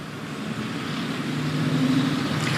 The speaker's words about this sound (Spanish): estoy aquí en una estación de gasolina de la ciudad de Miami, te voy a mostrar a ti, a los televidentes, cómo está el panorama.